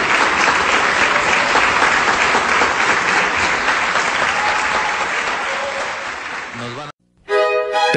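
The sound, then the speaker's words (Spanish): Sustained, dense applause from a concert audience giving an ovation to the Camerata orchestra, its musicians standing, fills the first seven seconds at steady loudness, then cuts off abruptly, followed briefly by a different tonal sound. “Y cada principal de cada sección voltea a ver a todos sus miembros de pie aún recibiendo la ovación.”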